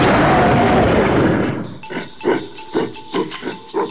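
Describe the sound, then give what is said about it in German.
A deafening roar from a caged gorilla as it jumps up after a boy's fingertips touch it: a loud raspy blast for over a second, then about six rhythmic, panting grunts that taper off. “Sofort sprang der Gorilla auf und stieß ein ohrenbetäubendes Brüllen aus.”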